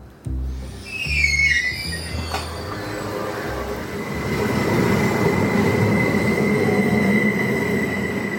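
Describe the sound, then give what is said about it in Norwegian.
A passenger train from Oslo, Norway, rumbles steadily through a tunnel with a dense low roar, metallic wheel squeals early on and a continuous high whine, with no voices. “Jeg har vel aldri sett så mange smilende mennesker på et tog fra Skyt i Oslo.”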